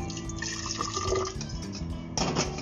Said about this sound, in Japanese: これも煎茶をしたいのでどうしようかな、まあ、1回今フィルターインボトラの中にお湯を入れては